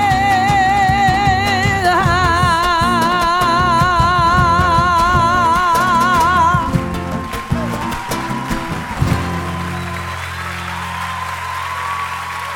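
A live song, recorded in May 2009 at a theatre, ends with sustained, wavering instrumental tones over a steady beat, then the music cuts off and loud, dense applause from a crowd takes over and continues to the end.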